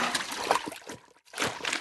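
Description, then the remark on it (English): Water splashes and sprays in a steady, hissing rush at a railway engine washdown as Duchess, an engine with cream-coloured paintwork, is cleaned, broken by a brief pause before the spattering resumes, with no voices present. “So Thomas let Duchess use the washdown first.”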